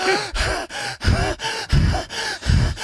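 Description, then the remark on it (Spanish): Rapid, heavy panting with sharp voiced gasps, about eight quick breaths in a steady rhythm, loud, with no talking; it sounds like someone imitating two frightened people gasping for breath. “los dos allí, un silencio allí, ahí, los dos respirando y asustados.”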